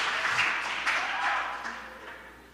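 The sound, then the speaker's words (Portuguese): An audience breaks into applause: a dense, steady wash of many hands clapping at once, holding for a couple of seconds before gradually thinning and fading toward the end. “Uma salva de palmas para você, por favor.”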